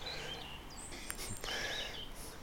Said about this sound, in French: Et malgré le tracteur, on a reconnu le rouge-gorge familier